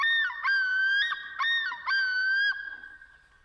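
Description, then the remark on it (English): Loons calling in a loud, close run of wavering, tonal cries, broken by quick warbling breaks, then trailing off and fading at the end. No one speaks. “Oh, there, there's the loons.”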